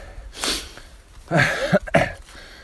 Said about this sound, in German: Ich kommentiere hier mit. Es geht den Berg hoch, deswegen schnaufe ich.